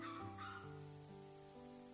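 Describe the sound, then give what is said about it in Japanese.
A caged puppy on a dim railway station platform whines and yelps mournfully, its high, drawn-out cries wavering in pitch for a couple of seconds with no voices around. “ただ、檻に入れられた子犬が一匹、時々悲しそうに吠え立てていた。”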